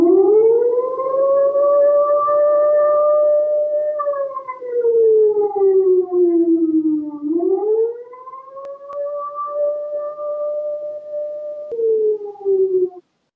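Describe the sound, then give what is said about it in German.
An air raid warning siren in Erfurt, Germany, signalling the bombing raids of 1944 and 1945, wails steadily, its pitch sliding down and then rising again in long sweeping cycles. It is loud and continuous throughout, with no voices. “Wenn die Erfurterinnen und Erfurter diese Sirenensignale hörten, war Eile geboten.”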